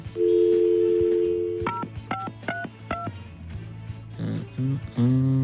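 A steady dial tone gives way to a quick run of four or five telephone keypad beeps as a phone call is dialed, each a short two-pitch tone, followed by softer tonal blips and a rising electronic tone.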